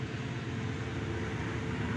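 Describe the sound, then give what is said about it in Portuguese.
A steady, heavy rumble of a giant train passing, deep and continuous with a broad roar and no break in loudness over the two seconds. No voices are heard. “E está a passar a puta de um comboio gigante, estás a ver?”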